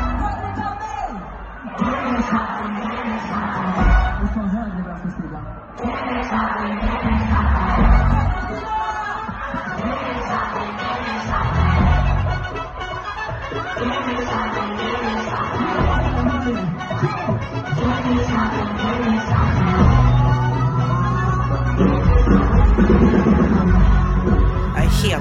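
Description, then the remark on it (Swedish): A large concert crowd sings along together with the performer on a song they had never heard before, for about 25 seconds, a dense, steady wash of many voices with a few sustained notes, cheers and scattered laughter mixed in. “Och så här lät det eh, när han då gjorde allsång med publiken på en låt som de aldrig har hört.”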